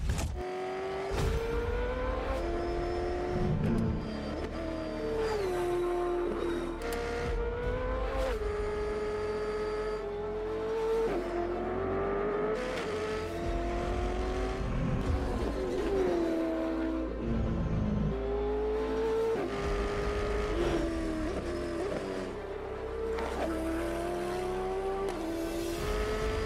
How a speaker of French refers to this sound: On se quitte sur ces images de la Brabham BT62 en action sur les circuits de Portimao, Portugal. L'occasion d'entendre chanter le V8 5 litres 4 atmosphérique de 710 chevaux.